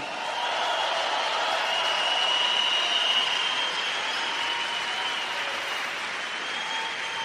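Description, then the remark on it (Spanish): Sustained applause from a large audience for a men's group called los hombres fuertes, a dense, steady wash of clapping that holds at an even level for several seconds without any voices. “Date un aplauso por estar aquí.”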